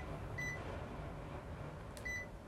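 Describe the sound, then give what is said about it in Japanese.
An air conditioner in a home hums and hisses steadily throughout, fairly loud, with two short electronic beeps chirping over it about a second and a half apart. “さあ、えー、ちょっとクーラーのね、え音が強いので、えー、弱めますね。”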